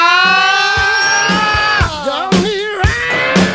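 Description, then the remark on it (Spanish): A loud, shrill, sustained scream in the style of a rock singer, held high and wavering with vibrato, broken by a few brief pauses and renewed wails. “Mirá el gritito.”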